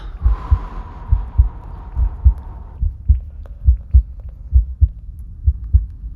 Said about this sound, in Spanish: Presta atención a los latidos de tu corazón.